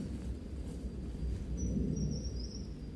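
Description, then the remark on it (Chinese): A deep, continuous rumble of thunder rolls on for the whole stretch, heavy in the low end and swelling slightly toward the end, with no voices present. “好棒哦，他的声音好洪亮哦，哦，非常洪亮。”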